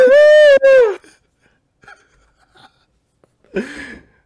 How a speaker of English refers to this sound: Powerfully yawn. I'm good now.